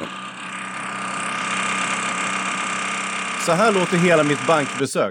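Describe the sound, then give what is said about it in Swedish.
A power drill whines steadily through a thin wall, a continuous muffled mechanical drone from renovation work in the premises next door at Handelsbanken Odenplan. Near the end, a man starts talking over the noise. “Det där låter som Farmen-Kristinas vibrator, men det är alltså en borrmaskin där de bygger om Handelsbanken Odenplan.”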